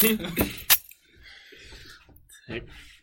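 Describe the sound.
A beer bottle is opened up close: a couple of sharp metallic clicks and clinks as the cap is pried off, followed by quiet rustling and faint voices in the background.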